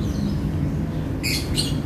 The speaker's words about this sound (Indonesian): Masih banyak burung berterbangan